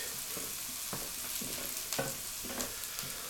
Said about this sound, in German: Und wir wollen jetzt auch die Auberginenstückchen goldbraun braten, damit sie Aroma bekommen.